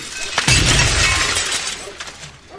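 A gunshot is fired at a side window of a building: a sharp, loud impact bursts the window, followed by a second or so of glass shattering and raining down, then a few scattered tinkles of falling shards fading out.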